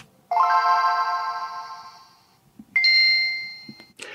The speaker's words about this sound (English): difference between the boot up sounds on the prototype Game Boy Advance